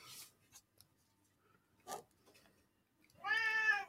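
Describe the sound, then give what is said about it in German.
A single clear cat meow near the end, fairly loud, after a few faint scratchy clicks and rustles. “Miau. Miau. Ja, Nala.”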